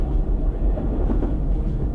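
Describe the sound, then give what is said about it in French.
A train rumbles steadily along the rails, a loud, continuous low roar with faint rhythmic clatter, as if heard from on board, with no voices. “Il faut arrêter ce train.”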